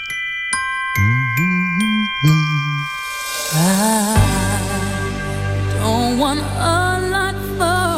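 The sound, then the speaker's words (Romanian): Festive Christmas music with bright jingling bells and chiming tones, a melody with a steady rhythm playing loudly and clearly, growing fuller and richer partway through, with no voices. “Da, eh, practic nu va mai dura mult până când veți auzi pe fundal și asta.”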